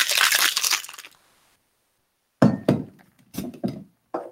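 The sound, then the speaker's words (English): Ice rattles hard inside a cocktail shaker in a dense, rapid burst of about a second, then silence, followed by several separate clunks and glassy knocks. “Shaking here. Pick that bad boy up.”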